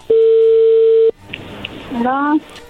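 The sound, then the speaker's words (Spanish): A phone call to Guatemala connecting: one loud, steady mid-pitched beep lasting about a second, followed by hissy line noise, a couple of faint clicks and a brief voice answering. “bueno, no hagan ruido, ya entró la llamada.”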